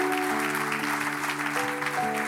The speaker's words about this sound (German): Lass uns weiterklatschen, Freunde.